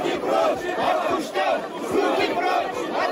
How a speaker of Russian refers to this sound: Вы только что услышали голоса активистов. Э, дело происходит в Башкортостане. А Куштау, от которого они просят убрать руки прочь, это Шихан, такая известняковая гора.